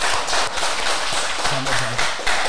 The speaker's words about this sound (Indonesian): Luar biasa. Luar biasa. Tepuk tangan dong. Keren loh.